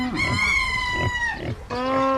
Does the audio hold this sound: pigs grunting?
yes